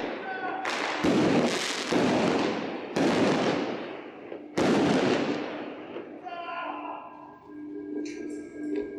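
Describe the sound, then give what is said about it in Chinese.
Fireworks set off as part of a stage performance around a swimming pool burst in a run of four loud booms, each trailing off in a crackling rumble, before things settle into a quieter stretch with faint high tones. “不论是散落在泳池中与表演者互动的篝火，以现状照亮泳池两侧两难的火，以及一鸣惊人的烟火，除了视觉上鲜明的效果，更体现了欲望的流转与消融。”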